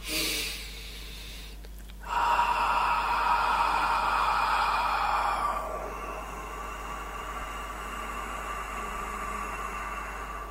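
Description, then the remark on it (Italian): After a quick breath, a single voice holds a sustained open-mouthed "A" vowel, then closes the mouth into a softer, steady nasal hum that continues to the end, unaccompanied. “si inizia col produrlo a bocca aperta e poi si chiude la, go- la bocca mentre lo stiamo facendo, avendo l'accortezza ovviamente di liberare diciamo il passaggio tra gola e naso perché è da lì che deve uscire l'aria, ok?”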